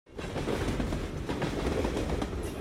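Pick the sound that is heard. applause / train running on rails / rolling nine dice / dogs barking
train running on rails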